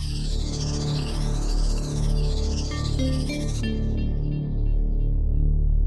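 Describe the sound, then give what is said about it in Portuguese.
A short, loud electronic jingle plays on its own for about six seconds, with a thick, sustained bass and shimmering sweeping tones above that drop away abruptly toward the end. “Tá bom, Solta né? a vinheta aí, João.”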